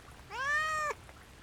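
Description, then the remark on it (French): A single high-pitched meow from a kitten in a cardboard box, drawn out for about half a second with a slight rise at the start, heard clearly and alone against quiet background. “Le chaton, qui avait enfin capté l'attention de son interlocuteur, miaula à nouveau.”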